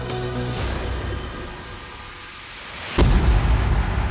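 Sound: nuclear bomb explosion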